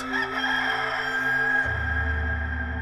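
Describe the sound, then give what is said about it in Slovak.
A rooster crows once, loud, in a long drawn-out call that shifts pitch partway through, with no other sounds or voices around it. “Peter Ježiša znova zaprel a v tom zaspieval kohút.”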